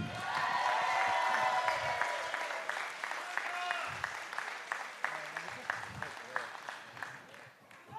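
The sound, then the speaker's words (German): An audience claps steadily and loudly to welcome a new Schalke player onto a stage, the applause then thinning into scattered, fading claps, with voices murmuring underneath. “Zum zweiten Mal ja heute Ron Schallenberg. Applaus!”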